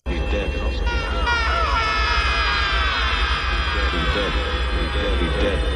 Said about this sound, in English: Here's a really bad yell. I think this was Robert Forster supposed to be him yelling while they were going through the black hole and everything's getting all twisty.